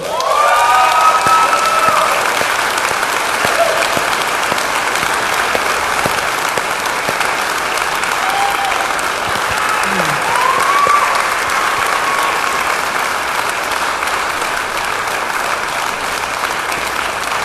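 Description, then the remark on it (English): Sustained applause from a large audience as a new director of worship and creative arts is invited up to the stage, steady and loud for the full stretch, with a few scattered whistles and cheers rising over the clapping. “Would you please give some love to Brian Buffing?”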